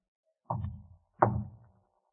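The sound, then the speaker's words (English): Two taps on a door as a prearranged signal, evenly spaced less than a second apart, each a dull, resonant thud that rings briefly before fading. “Taps on the door. The signal.”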